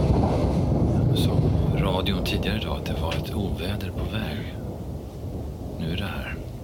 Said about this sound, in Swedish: och sa att det skulle regna hela natten.